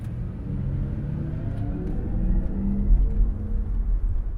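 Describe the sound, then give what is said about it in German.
A steady low rumble fills the cabin of an XM, the maker's newest electric car, while driving, with a faint humming tone slowly rising above it. No one speaks. “wir sitzen jetzt in einem äh, xm fahrzeug Das ist unser ähm, neuestes Elektrofahrzeug.”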